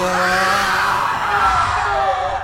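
Patients in a hall of a psychiatric ward scream and wail together in a loud, unbroken chorus, several overlapping pitches rising and falling with no pauses, filling the space with steady anguished noise.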